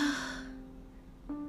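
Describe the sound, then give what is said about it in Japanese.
A single performed yawn of a flower in a story as it begins to speak: a drawn-out, breathy voiced exhale that fades away, followed a moment later by the start of another short vocal sound. “何一つ手落ちなく化粧を凝らした花はあくびをしながら言いました”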